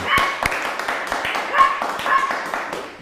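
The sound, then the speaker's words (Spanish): A small pet dog gives several short, high-pitched yips amid a busy stretch of sharp clapping, with faint voices mixed in underneath, as guests are welcomed into a home. “Hasta la mascotita da la bienvenida.”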